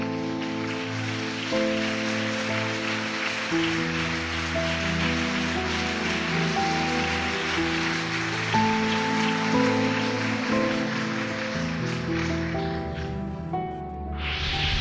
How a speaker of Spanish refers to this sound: Demos un aplauso a nuestro rey.